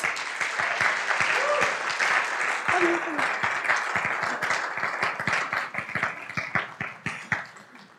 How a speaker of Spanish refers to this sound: Pero bueno, le damos un aplauso a Dios por la vida de ellos.